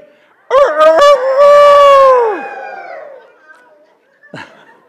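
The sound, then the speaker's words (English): People attending a service loudly imitate a rooster's crow together on a count of three, a long rising-and-falling cock-a-doodle-doo lasting about two seconds, followed by scattered laughter and chatter. “All right, I want, when I count to three, I want everybody to make your best rooster sound, okay?”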